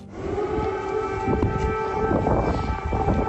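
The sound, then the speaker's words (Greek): An air raid siren wails with a steady, sustained tone, loud and continuous for the whole stretch, with low rumbling background noise beneath it and no one speaking, at the memorial to the fallen in Kyiv, Ukraine, as Biden lays a wreath. “Ζελένσκι και Biden επισκέφτηκαν τον καθεδρικό ναό του Αρχάγγελου Μιχαήλ, και το μνημείο των πεσόντων όπου ο Biden κατέθεσε στεφάνι υπό τον ήχο του αντιεροπορικού συναγερμού.”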